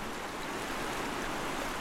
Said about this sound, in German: Schaut man in eine andere Richtung, rauscht es als reißender Strom über die hellen Felsen.